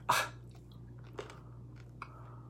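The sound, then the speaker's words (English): A sharp crunch of someone biting into crunchy espresso beans, followed by a few softer chewing crackles, with a steady low hum underneath and no talking. “Got some espresso beans. Yeah. And it's keeping us awake.”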